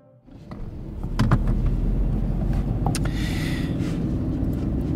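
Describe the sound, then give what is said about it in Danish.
Steady low engine rumble and road noise fill the cabin of a moving car, driving on the way to the next guest, with a few faint clicks and rattles near the start and a soft hiss of tyres throughout. “Så sidder vi i bilen igen.”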